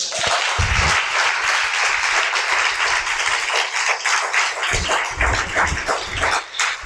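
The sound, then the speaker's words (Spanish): An audience claps together for the Lord in sustained, dense applause for several seconds, a loud continuous patter of many hands with brief low bursts mixed in; no one speaks. “aplaude al Señor.”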